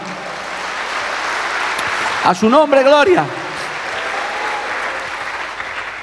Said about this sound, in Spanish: Denle un aplauso a Dios por eso, amado hermano.